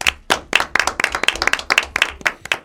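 Audience applause made of sharp, distinct claps in a quick, fairly steady rhythm, loud and crisp, lasting a few seconds with no voices over it.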